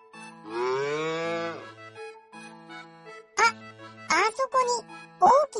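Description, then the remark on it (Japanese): A cow lets out a long, loud moo near the start, followed by a child's voice speaking excitedly with quick bursts of talk. “牛がいるよ。もしかして、テーブルを壊したっていう牛そんなんじゃ。”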